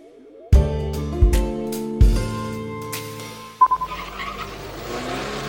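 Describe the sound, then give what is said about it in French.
A car engine roars through several sharp revving bursts with rising tones, then a brief squeal of tires as it brakes hard, loud, with no talking. “Les accélérations intempestives, souvent inutiles, suivi de coups de frein, entraîne une consommation d'essence excessive.”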